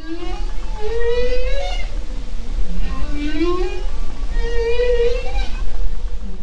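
Whale calls: drawn-out, rising and wavering tonal moans that repeat several times, steady and fairly loud over a constant low underwater rumble.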